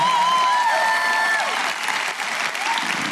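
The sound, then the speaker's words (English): A large church audience applauds loudly and steadily to welcome LifePoint Louisville, with scattered whoops and cheers rising above the dense clapping, continuously from start to finish. “Come on, make some noise. Let them know how much you love them.”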